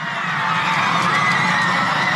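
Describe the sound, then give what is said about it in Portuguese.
A large crowd outside the Congress in Buenos Aires, Argentina, celebrating the Senate's approval of a law, cheers and shouts continuously: a dense roar of many voices with high whoops and screams layered on top, steady and loud throughout. “Do lado de fora do Congresso, em Buenos Aires, uma multidão comemorou a decisão.”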